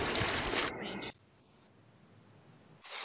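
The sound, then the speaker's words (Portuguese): A toilet flushes with a loud, rushing burst of water that drains off within about a second into near quiet, then a second surge of noise starts at the end. “Você está ouvindo? Descarga!”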